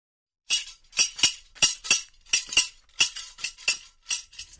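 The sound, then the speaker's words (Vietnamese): At dusk in a small village, sharp metallic clacks of a travelling candy seller's scissors ring out in a steady, quick rhythm, often in pairs, fairly loud, with no talking. “Trời chập choạng tối, ngôi làng nhỏ bỗng lại nghe thấy tiếng kéo lách cách của anh bán kẹo.”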